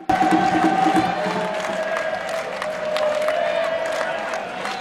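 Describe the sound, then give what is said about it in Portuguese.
A large football stadium crowd roars and cheers continuously, loud, with sustained chanting tones running through the dense wall of noise for the whole stretch, as the supporters are roused during a match. “E a torcida foi chamada.”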